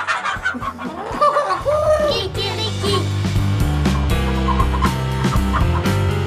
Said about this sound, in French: 3, 2, 1. Cocorico Kikiriki